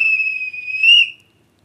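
A single sustained, high-pitched train departure whistle holds one steady shrill note for about a second, rising slightly in pitch and loudness just before it cuts off into silence.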